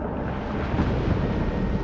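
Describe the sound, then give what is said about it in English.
A deep, muffled rumble of thunder on Venus rolls on steadily, dense and low, sounding dull, slightly muffled and distorted as it travels through the thick Venusian atmosphere. No voices. “the thunder”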